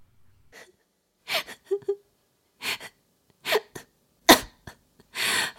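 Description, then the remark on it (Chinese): A violent coughing fit: about half a dozen harsh, raspy bursts in an irregular rhythm, with short gasping breaths between them and a longer, strained final cough. No speech. “轻笑了几声，却又剧烈咳嗽起来”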